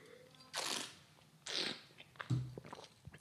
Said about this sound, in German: Spare ich euch den Einspieler mit dem Schlürfen, sondern trink einfach hier jetzt vor Mikrofon.